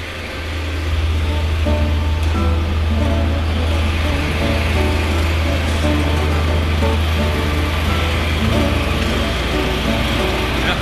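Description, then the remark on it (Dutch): Continuous, loud rumble of car traffic driving through a road tunnel, the cars carrying out finishing construction work, with a deep low hum and a faint mechanical whine, droning steadily throughout with no clear gaps and no voices. “Het is hier eh, al druk verkeer hier, want eh, al het, eh, de aflopende werkzaamheden worden allemaal met auto's gedaan.”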